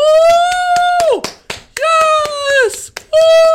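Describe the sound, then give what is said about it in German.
Steady, rhythmic hand claps, about four to five per second, under long, loud sustained vocal whoops whose pitch drops sharply at the end, as if someone is mimicking an excited cheering crowd. “Und äh, dann klatschen alle so und, und äh, dann musst du kurz so steif gucken, bis alle aufhören zu klatschen.”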